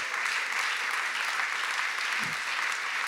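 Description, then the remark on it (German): An audience claps steadily, a dense wash of many hands producing a continuous crackling hiss at even loudness throughout, with no voices standing out. “Gib ihnen einen Applaus.”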